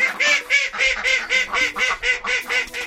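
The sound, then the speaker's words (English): Cornish ducks from Cornwall quack in a steady run of about a dozen long, relaxed, raspy calls, evenly spaced, with no voices or other sounds around them. “These Cornish ducks communicate in long, relaxed quacks.”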